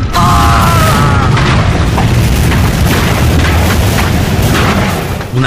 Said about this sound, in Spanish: poderosa explosión arrojó al valiente Standartenführer en varios metros, mientras sus camaradas se ponían a cubierto.